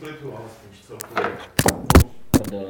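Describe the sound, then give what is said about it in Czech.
A microphone topples over with a few loud thuds and knocks in quick succession, each a sharp jolt, while a person keeps talking underneath. “Tak mi spadl mikrofon.”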